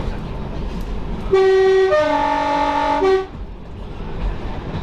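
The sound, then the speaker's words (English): A train horn sounds one loud, sustained, chord-like blast lasting about two seconds, with its pitch stepping partway through, over a low rumbling background with no talking. “The college had laid on another, even bigger, special train from Sligo to Port”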